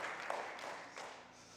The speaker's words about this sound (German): Komm, lass uns den beiden nochmal diesen Applaus geben. War mega.